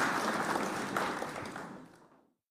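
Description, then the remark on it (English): A short burst of audience applause, many hands clapping together in a dense, steady patter that gradually thins and fades out after about two seconds. “Can we clap for?”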